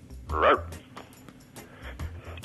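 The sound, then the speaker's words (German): A dog calling in to a TV show gives a short yelping bark, then softer whimpering yips, all thin and band-limited as heard through a phone line, with a low steady hum underneath. “Das ist ein echter Hund, oder?”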